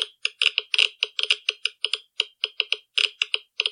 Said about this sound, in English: I thought the Geiger counter was like the actual little contraption. What sound does a Geiger counter make?